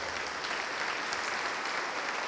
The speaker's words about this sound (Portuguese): Vem para cá. Vamos aplaudir mais ao nome de Jesus.